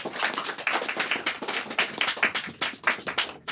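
Steady applause from the audience at a recording of the talk show Bu Kai Wan Xiao, welcoming the guests, many hands clapping in a dense, crackling patter that holds at an even loudness for a few seconds, with no voices over it.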